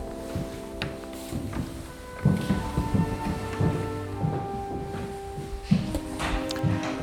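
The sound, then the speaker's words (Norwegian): Footsteps thud steadily up a wooden spiral staircase toward the top of the tower of Oscarshall, in an irregular climbing rhythm, with creaks and a low steady hum in the background. “Og for noen flotte gulv og dører og lyden når vi går her.”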